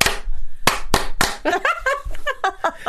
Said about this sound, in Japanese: ハンドクラッピンな。だって拍手でもうちょっとなんかコミュニケーション取れてもいいと思うんだよね。ああ。まあ、タモさん以来ないもんね。そうそうそうそうそう。ですよね。でしょ う、ね、やりたいなあれ、今こそ、今こそいいともの拍手がこのコロナ禍にぴったり。